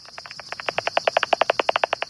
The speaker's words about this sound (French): Mais avec un appareil spécial, un bat détecteur on peut entendre toutes les fréquences. Et là, on découvre totalement leur quête frénétique d'insectes nocturnes.